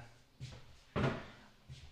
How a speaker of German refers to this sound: So, jetzt stelle ich kurz den Besteckkasten hier ab, weil ich muss nämlich jetzt Mikrofontausch machen.